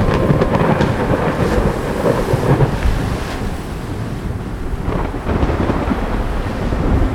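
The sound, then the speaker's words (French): A loud, continuous storm at sea: deep rumbling thunder rolls beneath crashing waves and steady rain, with wind buffeting throughout. No voices are heard. “Quand le chaman s'aperçut de la disparition de son épouse, il entra dans une terrible colère et déclencha une gigantesque tempête sur l'océan.”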